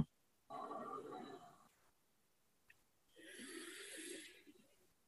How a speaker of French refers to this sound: Donc euh, voilà, comme ça, on fait une grande inspiration et une grande expiration.